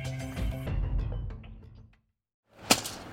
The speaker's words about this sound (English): Hear that? It's the sound of someone whacking the ground with a rake.